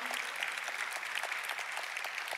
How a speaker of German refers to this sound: Vielen, vielen Dank. Geben wir ihm Applaus.